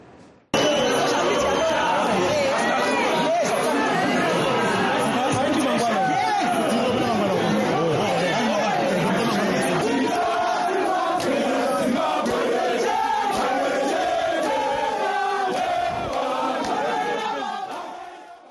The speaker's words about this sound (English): Those were opposition members rejoicing at the news that Job Scala was now a free citizen.